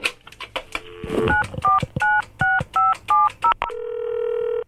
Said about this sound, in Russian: И сейчас этому слушателю позвоним.